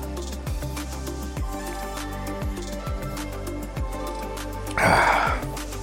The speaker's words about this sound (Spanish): Ahí está. Tomamos un poco de agua. Sorry por el ruido.